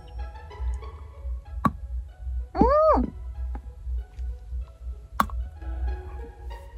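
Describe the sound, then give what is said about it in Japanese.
Two crisp, sharp snaps of a plain chocolate bar (itachoco) being bitten, a few seconds apart, with a brief murmured vocal sound in between over a low steady hum. “じゃあ続いては、こちらの、板チョコ。絶対なるでしょ。いただきます。”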